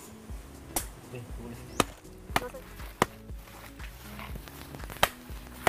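A wooden stick pounds down about six times at an uneven pace, each blow a sharp, loud knock, with faint voices murmuring underneath between strikes.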